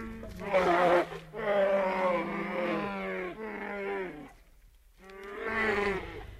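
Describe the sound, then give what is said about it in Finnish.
A brown bear lets out a series of deep, drawn-out moaning calls, loud, run together with a short pause before a final rising groan. No one speaks. “Viikon luontoääni: Karhu”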